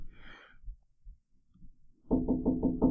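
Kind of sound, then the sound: impact, knocking on a door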